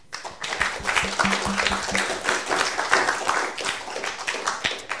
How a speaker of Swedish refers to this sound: vi kan väl avsluta med att ja, ge en applåd till Stefan för det här